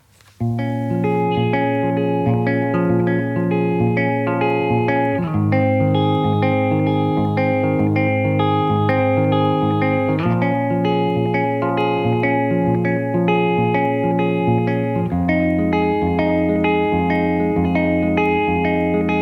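An acoustic version of a pop song plays, here an instrumental stretch of full, sustained chords that change in a steady pattern every few seconds, holding an even loudness with no singing.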